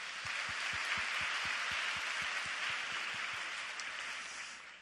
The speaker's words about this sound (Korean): 아, 이번 주 그리고 다음 주 어, 국내외로 아우니치를 떠나시는 분이 있으면 한번 손들어 보시겠어요? 네, 할렐루야. 우리 이분들에게 격려의 박수 해주시기 바랍니다.